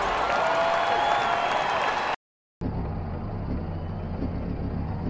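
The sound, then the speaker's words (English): A broad, steady roar of a large ballpark crowd, heard from far outside the park, fills the opening seconds, breaks off briefly, then returns muffled and duller beneath a low engine-like rumble. “Well, something must have happened if we can hear the park this far out.”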